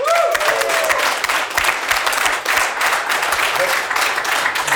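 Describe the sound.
A crowd breaks into sustained, loud applause, dense clapping filling the room for several seconds with steady intensity, a brief whistle or voice faintly rising near the start.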